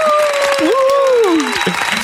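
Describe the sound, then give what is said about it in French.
Steady, dense applause fills the whole two seconds, with a sliding, voice-like whoop or cheer rising and falling over the clapping. “Et eh oui, tout à fait, la rentrée, applaudissements”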